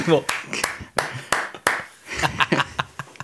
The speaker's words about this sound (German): Klatschen. so einzeln.